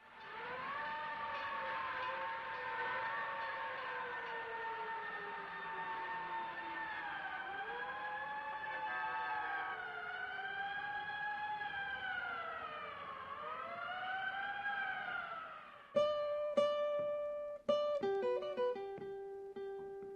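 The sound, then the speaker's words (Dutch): A loud fire alarm siren wails steadily on a city street, its pitch sweeping up and down for about fifteen seconds, then cuts into a few sharp, stuttering blasts before fading. “Verkeersgeluiden, bouwgeluiden. en het lawaai van een brandalarm.”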